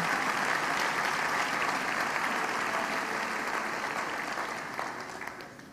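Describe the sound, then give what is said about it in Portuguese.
An audience at a church service applauds the Lord steadily, a dense wash of many hands clapping together that holds loud for several seconds before gradually thinning and softening toward the end. “Vamos aplaudir o Senhor por essa hora tão bendita, tão preciosa.”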